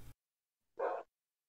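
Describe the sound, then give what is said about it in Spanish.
A single deep bark from the speaker's own dog rings out clearly after a brief click and a short silence, loud, with nothing else around it. “Y empezábamos a platicar ahí en, el y de repente salió y tremendo perro que escuché ahí.”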